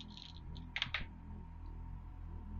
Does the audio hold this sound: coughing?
no